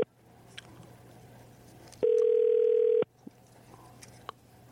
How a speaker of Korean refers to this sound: 0283님 전화 한번 걸어볼까요?